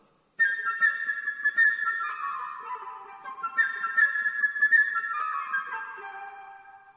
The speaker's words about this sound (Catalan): En aquesta història, cada personatge és representat per un motiu musical determinat i per un instrument diferent. L'ocell per la flauta.